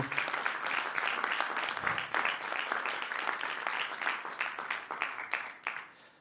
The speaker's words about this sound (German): Vielleicht können wir gerade einen Applaus für all die geben, genau.